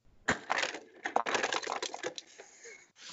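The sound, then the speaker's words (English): A dense, crackling rush of tiny clicks and crunches, like a soft drink being poured over ice that gets crushed, lasting a few seconds at moderate, steady loudness with no voices. “Now you have all those sound effects just to go in, and that that is very much like pouring of a soft drink and crushing of the ice.”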